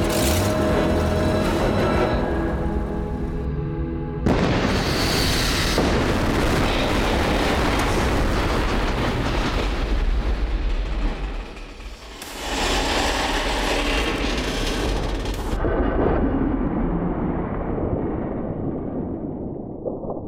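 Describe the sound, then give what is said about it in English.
A bridge being blown apart by demolition charges laid by soldiers: a sudden massive blast, then a long roaring rumble, with a second heavy burst midway before the noise slowly fades, no voices. “They reached the bridge, laid charges, and left the trailer full of any leftover explosive as an insurance policy.”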